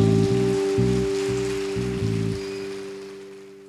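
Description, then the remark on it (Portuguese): An audience applauding the Lord Jesus: a dense, steady crackle of many hands clapping over low, sustained musical chords that pulse in a rhythmic pattern, the whole sound gradually easing off toward the end. “Pode ser mais forte esse aplauso ao Senhor.”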